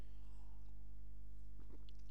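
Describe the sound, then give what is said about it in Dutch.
A quiet sip of water: a couple of soft wet mouth and swallowing sounds near the end, over a steady low hum, with no talking. “Even een slokje water.”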